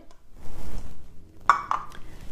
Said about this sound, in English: Fill it with water. Fill it till top. Actually, I just finished this water. So fill it here and then pour the water in the glass where